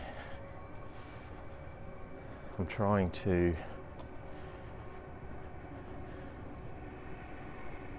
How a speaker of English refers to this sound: Gee, that train is a long way away, but boy, is it loud.